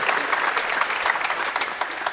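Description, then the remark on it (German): A small group, the panel of a football talk round, claps steadily, a dense patter of many hand claps at moderate loudness, continuous with no talking over it. “Jetzt gibt es dennoch Applaus hier aus der Runde.”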